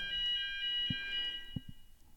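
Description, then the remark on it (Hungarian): An emergency alarm bell rings steadily inside a building, a continuous high-pitched electronic tone sustained throughout, with a few soft knocks and thumps underneath. “Na, beindult Hoppá, a valami, valami probléma van, lehet, hogy jönnek a tekesek itt a hábhábba, mert egy véscsengő megszólalt.”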